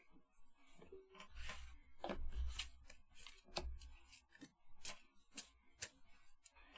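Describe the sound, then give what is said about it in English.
Quiet card handling: a deck being shuffled, with irregular crisp snaps and soft papery flutters scattered over several seconds and no voices. “Um, shuffle them until you feel that you're ready to ask your question.”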